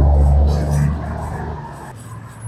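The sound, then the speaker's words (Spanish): A truck rumbles past on a street beside a school, its deep engine roar loud at first and then fading gradually as it moves away. “bueno, fue un camión, de hecho.”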